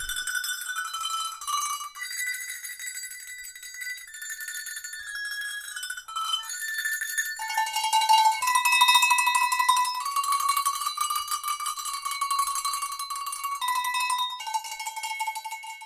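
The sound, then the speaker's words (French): Alpine cowbells clang continuously in a dense, overlapping chorus of bright metallic tones, steady and fairly loud throughout, with no voices. “J'entends des clarines.”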